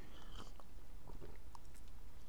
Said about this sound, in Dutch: Even een slokje water, sorry.